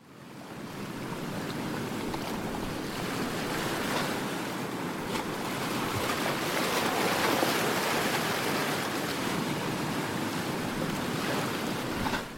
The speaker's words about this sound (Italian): Al tramonto. Il mare rossiccio si infrange con ostinato impegno contro la costa anulare dell'atollo vulcanico, ma gli spruzzi di schiuma brillano bianchi nell'ultima luce del crepuscolo.